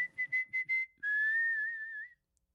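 person whistling

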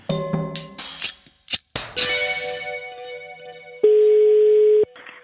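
telephone ringing tone

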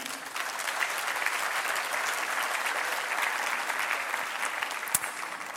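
audience applause

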